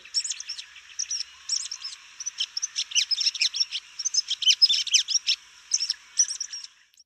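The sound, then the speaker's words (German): A red-backed shrike sings alone in a steady stream of rapid chirps, scratchy chatter and short whistled phrases, moderately loud, with no pauses longer than a moment. “Nee, es ist der 1985 mit dem Neuntöter, der der Vögel des Jahres ist. Und der Neuntöner klingt so.”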